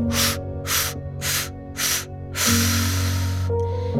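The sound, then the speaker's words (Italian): After an inhale through the nose, a quick run of five short, forceful exhalations blown out through the mouth, four evenly spaced puffs and a longer final one, breathy over a soft, steady musical drone. “Inspiro naso, butto fuori bocca 5 brevi espirazioni.”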